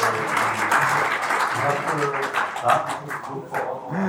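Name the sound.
clapping in the background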